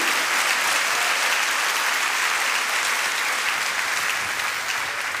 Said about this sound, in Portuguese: Pode dar salva de palmas a Jesus, irmão. Bota a glória a Deus aí.